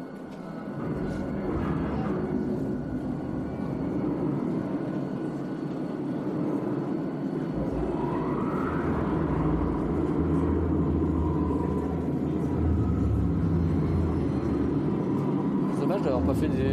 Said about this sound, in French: Ouais, c'est un petit regret que tu peux avoir, je pense. Là, c'est juste des écrans. Un petit bruit de moteur, tout ça, mais c'est. Ouais, il manque pas grand-chose.